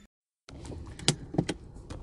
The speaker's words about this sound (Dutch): Deze podcast neem ik op vanuit de auto en ik ben net eh, onderweg vanuit de energetisch coach.